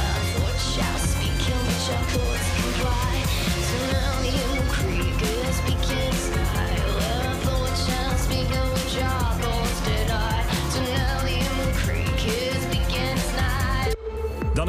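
A loud, full band track plays steadily, with dense layered instruments, a driving beat and melodic lines, continuing without pause before cutting off abruptly near the end.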